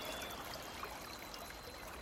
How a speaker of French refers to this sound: Une rivière urbaine, la Scarpe. Au cœur de Douai coule une rivière, la Scarpe.